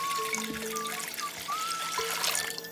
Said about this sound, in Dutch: Bert gooit een heleboel meel, gist, boter en water in een grote ton.